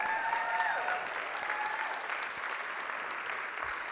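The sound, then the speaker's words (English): Steady applause from a crowd, a dense wash of many hands clapping at a sustained, fairly loud level for the whole stretch, with a few faint whistle-like tones rising above it early on. “You should be clapping right now.”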